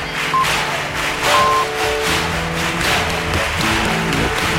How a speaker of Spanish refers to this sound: El máximo, el más de honor, el que reconoce un proyecto de la ciudad que acoge los más, en este caso Cádiz, ha distinguido a la bicentenaria compañía gaditana Los Títeres de la Tía Norica. El público lo ha recibido con una ovación flamenca.